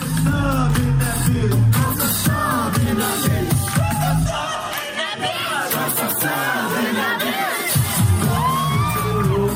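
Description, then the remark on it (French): A large concert crowd roars for a performer who has come on stage with two dancers, with many overlapping shouts, whoops and cheers filling the space, loud and dense throughout with no pause. “Il va littéralement retourner le public. Première preuve.”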